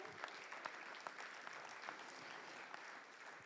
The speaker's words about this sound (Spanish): Gloria a Dios. Dele palmas al rey.